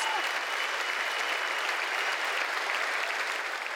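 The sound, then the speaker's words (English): A burst of crowd applause sound effect, dense and continuous, with many hands clapping at an even, loud level throughout and no voices over it. “Clap, clap, clap, clap, clap, clap, clap, applause noises.”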